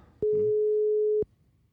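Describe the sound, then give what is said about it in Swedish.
A single steady telephone ringing tone as a number is dialed, one flat mid-pitched beep lasting about a second, starting and stopping with soft clicks, heard alone without any talking. “Jo, ja, men jag, jag slår in numret. Mm. Får hoppas att hon svarar nu då.”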